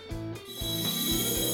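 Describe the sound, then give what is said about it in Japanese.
A loud, guttural burp blends with a voiced groan, rumbling low and creaky in three rough pulses, each starting abruptly and dragging on briefly. “めちゃめちゃなゲップ出ちゃったゲップと発声が混ざって”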